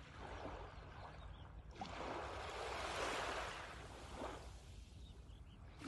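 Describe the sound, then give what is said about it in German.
Soft ocean waves wash onto the shore in slow, broad surges, one swelling to a peak before receding into a steady background hiss, calm with no voices. “Mit der nächsten Welle atmest du die Brise tief ein.”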